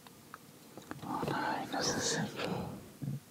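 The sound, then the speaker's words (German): A voice imitates a raspy, wheezing death rattle: a single drawn-out, breathy gurgle lasting a couple of seconds, fairly quiet, followed by a short faint exhale. “Und du guckst zu deiner Linken, hörst ein weiteres Mal dieses Röcheln, als du eine Gestalt am Boden siehst.”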